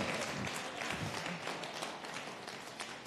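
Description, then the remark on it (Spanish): An audience applauds steadily, a dense, even wash of many hands clapping together at a fairly loud level for the whole stretch, with no one speaking over it. “Ahí se aplauden.”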